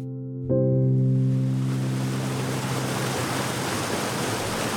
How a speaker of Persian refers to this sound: توی طبیعت اطراف شهر خورم آباد آبشارای زیادی وجود داره وای که چه کیفی داره از نزدیک این آبشارا رو ببینی من اومدم دیدن آبشار نوژیان